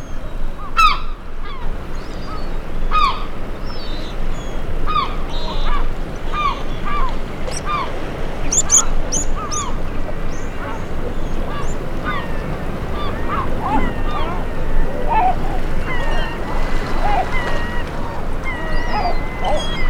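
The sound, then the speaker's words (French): Repeated loud, harsh herring gull cries in quick bursts, some squealing and rising, over a steady rushing background of water or wind, with no talking. “Goéland argenté, m'a-t-on dit.”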